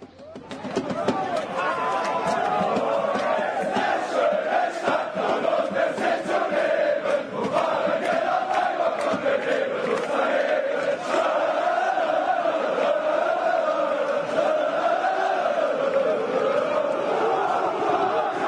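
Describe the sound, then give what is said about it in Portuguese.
A large crowd of Hamburger SV football supporters chants together in a loud, steady, sing-song wave of voices that rises and falls in pitch, sustained without a break for the whole stretch. “O programação das torcidas, então agora vai ouvir Hamburg e Schoenstatt.”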